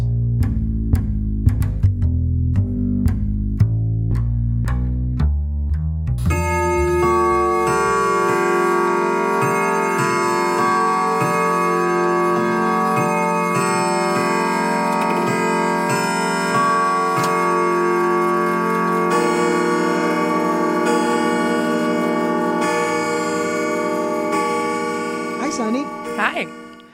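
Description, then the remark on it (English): A clock ticks steadily for a few seconds, then rich, ringing bell chimes strike twelve times one after another, their tones overlapping and sustaining loudly until the end. “So turn out the lights, draw the shades, wrap up in your favorite blanket by the speaker, and listen for the 12 bells.”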